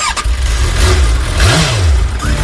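A motorcycle engine loudly cranks to life, then revs in a rising and falling sweep before settling back to a rough, throbbing idle, with no voices.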